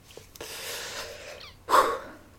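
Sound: heavy breathing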